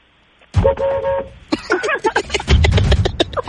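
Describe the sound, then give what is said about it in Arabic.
One loud, sustained car horn honk from a Kia Cerato sounds for under a second, then people start talking, their voices overlapping with some background noise. “ايوه اسوق يعني دقي البوري تهور قليلا دقي دقي بوري”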